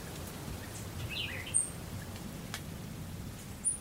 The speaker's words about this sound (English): As I drive west towards the national park, the electricity of Miami dwindles and the skyscrapers fade away. The air softens as the sounds emerging from the open windows change from beeping horns to birds.